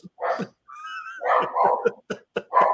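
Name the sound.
dogs barking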